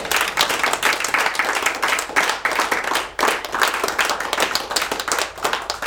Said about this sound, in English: He gave everything just for you. Give him a hand clap today.